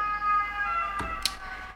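An emergency vehicle siren holds a steady, high tone for under two seconds at moderate loudness, broken by two short sharp bursts partway through. No one speaks.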